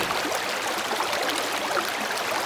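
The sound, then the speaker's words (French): A small stream, the young Meuse, flows steadily under a wrought cast-iron bridge at the edge of a village, a continuous bright babbling rush of water with no pauses and no voices, holding an even loudness throughout. “pas encore un fleuve, mais un vaillant ruisseau, cascadeur agile, trace à caillou sa route d'argile.”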